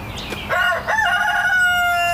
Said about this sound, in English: I gotta go let that chicken out. He's gonna not stop crowing.